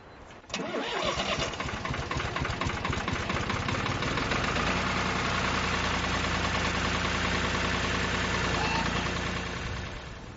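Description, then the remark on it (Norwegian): A tractor engine cranks and catches, then settles into a steady, loud idle with a low rhythmic chugging that continues to the end, before ploughing. “Nå står jo nå står jo plogen sånn på skrå eller på skeiva i forhold til traktoren, men det er jo fordi at når du har begynt å pløye, du kjører jo ned i det ene eh, I det siste pløyefåret kjører du ned i med det ene hjulet, og da blir traktoren”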